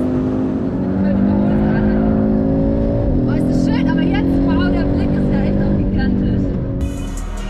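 The 400 hp five-cylinder engine of an Audi roars loudly, its pitch rising and falling as a professional driver drifts the car on the Nordschleife, with sharp bursts of tire squeal chirping over the steady engine drone.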